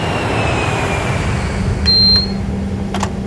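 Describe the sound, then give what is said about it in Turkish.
Airplane engines warming up: a steady, loud low drone with a constant humming tone and a thin high whine, broken by a few brief clicks. No one speaks. “Ha, sen motorları inceden ısıt ben geliyorum iki dakikaya.”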